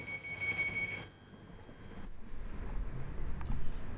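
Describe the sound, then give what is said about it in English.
A London Underground train at Finsbury Park station in London, terminating at Alexandra Palace, rumbles along the rails, a high metallic wheel squeal ringing for the first second before giving way to steady clattering and rolling noise, with no voices. “This train terminates at Alexandra Palace.”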